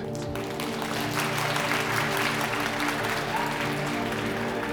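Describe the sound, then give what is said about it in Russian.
Steady, dense audience applause following the introduction of author Philip K. Dick, many hands clapping at once, sustained at an even loudness for several seconds, with a low tonal hum running underneath. “Кончились аплодисменты.”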